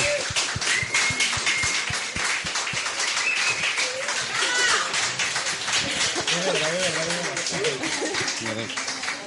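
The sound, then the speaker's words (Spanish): A crowd applauds with dense, steady clapping for several seconds, loud throughout, with voices and shouts of cheering mixed into the sound. “Un aplauso bravo.”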